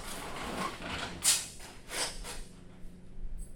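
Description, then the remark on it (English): A door is pulled down shut, with a short scraping rush followed by a second, softer sliding swish, then quiet background noise. No one speaks. “we're gonna have to put that door down.”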